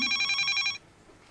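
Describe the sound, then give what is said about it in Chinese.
A telephone rings with a bright, buzzy electronic trill made of stacked high tones, lasting under a second before cutting off abruptly into quiet background. “哎，接一下电话。”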